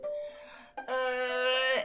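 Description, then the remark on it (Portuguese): A drawn-out, moaning howl of strong wind tearing at a window, rising in two steady swells that last under two seconds, loud, with no other sounds around it. “Uh, se vocês ouvirem um, um uivo de vento no fundo, é porque eu estou no meio de um apocalipse, assim.”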